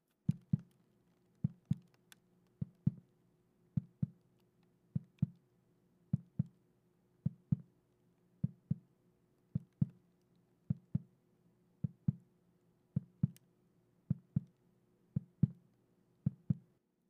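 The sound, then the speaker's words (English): Muffled, low thumps on the bottom of a trash can, struck in steady lub-dub pairs about once a second, like a slow heartbeat. The pattern continues evenly throughout, with no talking. “tap the bottom, varying the rate that you do this to simulate an intense, adrenaline fueled heartbeat or a slow, relaxed throb”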